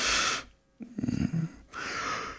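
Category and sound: human body sound, yawning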